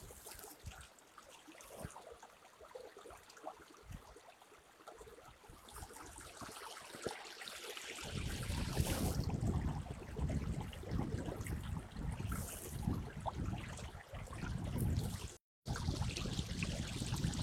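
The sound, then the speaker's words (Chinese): Flowing river water in Beijing on a very cold winter day rushes steadily with no voices, a soft gurgling wash that swells noticeably louder about halfway through, with one brief cut-out near the end. “谁能想到，在北京的冬天还有这样流动的河水，还有这么美的景色呢？”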